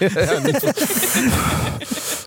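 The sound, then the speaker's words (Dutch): A voice imitates Darth Vader's heavy, hissing respirator breathing: a long, loud, breathy rasp, preceded by brief voiced laughter or vocal sounds. “Die zeg ik, ja, hij ligt te Dart Vederen, want hij ademt heel zwaar in zijn slaap.”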